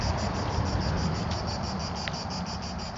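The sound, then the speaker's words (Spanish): A steady, continuous drone of cicadas singing in the trees in hot summer weather, a dense buzzing chorus with a faint rhythmic pulsing, moderately loud and unbroken throughout, with no voices. “¿Sabéis por qué cantan las cigarras? Porque hace mucho calor.”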